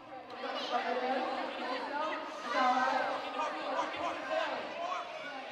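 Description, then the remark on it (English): A crowd of fans packing the bleachers and balcony of a gym cheers and calls out at a robotics competition as the timer counts down and robots move around a 12 by 12 field; many overlapping voices form a steady, loud din that swells briefly midway through. “The fans cheer as the timer counts down and the robots scurry around the 12 by 12 field.”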